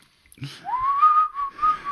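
A person whistles a short melodic phrase, somewhat out of tune, the tone sliding up and holding near one pitch with slight wavers, fairly loud, with faint breathy noise underneath.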